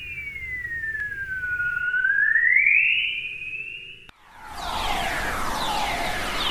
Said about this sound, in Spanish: Estas ondas se llaman ondas de coro. y a menudo se escuchan en el amanecer. Mire qué hermoso sonido que emite hmm. la Tierra.